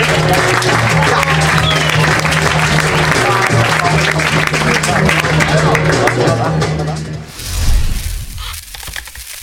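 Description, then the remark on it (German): Audience applause at a poetry slam on 30 October 2010, after a poet's scores totalling 39.5 are read out: a dense steady wash of many hands clapping at full loudness for about seven seconds, then dropping off into a low rumble and scattered noise. “Das ist doch nochmal klatschen.”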